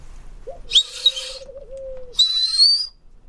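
A pigeon at a window in the morning coos in a long, steady low tone, with two brief rustling, fluttery bursts of higher sound around it and no voices.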